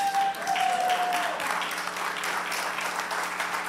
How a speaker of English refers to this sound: think I'm preaching better than you're clapping, but that's all right.